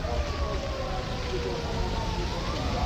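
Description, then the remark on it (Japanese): A police car siren wails steadily, its tone slowly rising and falling beneath a constant wash of outdoor street noise and faint voices, in Sendagaya, Japan, amid a heavy police presence. “これからなんかすごいね警察の車はなんかうんすごい物々しい場所からのね状況ですけどちょっと千駄ヶ谷に出てきたからこの物々しい感じで終わりますか そうですね ずっとサイレン鳴ってるずっとサイレン鳴ってるしあとすごい、警察がねもすごいいっぱい出てて”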